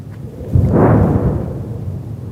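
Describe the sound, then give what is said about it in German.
A heavy detonation in the Gaza Strip, following artillery fire and Israeli air force attack flights, booms with a deep rumble that swells suddenly and rolls on for a couple of seconds before slowly fading, with no voices present. “Dem Knall des Artilleriefeuers und der Angriffsflüge der israelischen Luftwaffe folgen schwere Detonationen im Gazastreifen.”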